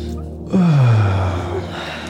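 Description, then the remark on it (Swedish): A single fairly loud yawn while stretching the upper body with hands lifted above the head: a breathy onset that slides down into a low, drawn-out voiced groan lasting about a second, then trails off. “Och lyfter våra händer ovanför vårt huvud sträcker på våran överkropp och vi kanske vill gäspa.”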